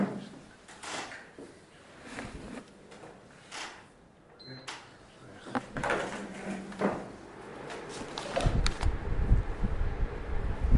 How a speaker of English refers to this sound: let's turn on the air conditioner.